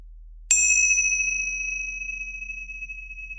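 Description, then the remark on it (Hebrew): A single strike of small hand cymbals opening a mindfulness meditation practice rings out with a bright, high metallic tone, then sustains and slowly fades, shimmering over a low steady hum with no talking. “ולטובת אלה שרק עכשיו מצטרפים, אז יש לנו טיפה אה, אקזוטיקה, ויש לנו את מצילות הפתיחה והסיום שילוו אותנו אל התרגול וממנו.”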